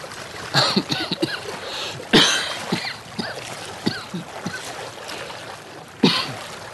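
Cold water from three qanats flowing together rushes and splashes steadily, broken by sharp bursts of splashing as something moves through it, with a few faint sounds like a cough or throat clearing mixed in.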